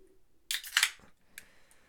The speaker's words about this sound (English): And I think this is awesome because this is right up my alley about uh, classic IPA, how it should be 6.1%. Uh, let's crack it open.